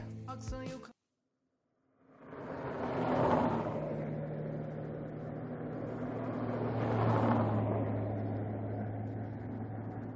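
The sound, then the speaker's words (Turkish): A car drives past beside a creek, its broad rushing noise swelling up, easing, then swelling again over a steady low engine hum, after a brief tonal burst and a moment of silence at the start. “derenin yanından araba geçiyor.”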